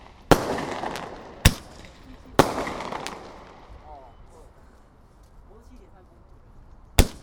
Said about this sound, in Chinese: 嗯，它烟火就是这样，砰，然后再 biang。哦，烟火有没有？